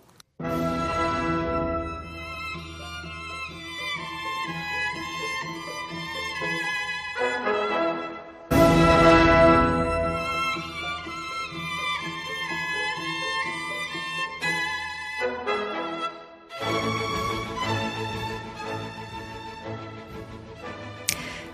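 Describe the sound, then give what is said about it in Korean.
Violinist Salvatore Accardo plays the first movement of Paganini's Warsaw Sonata, based on Józef Elsner's 1829 mazurka theme: loud, sustained bowed notes with a bright, rich tone, in phrases separated by brief pauses and sharp new attacks. No one speaks. “네, 지금 여러분들께서는 바이올리스트 살바토레 알칼도 연주를 듣고 계신데요.”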